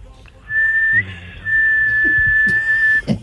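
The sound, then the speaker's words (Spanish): A person whistles an imitation of the call of a female huevimorado (güey mora) bird: two long, steady high-pitched whistled notes, the first held about half a second, the second longer and drawn out, with a short break between. “Ese es como el canto, como el... el... canto que hace por la noche.”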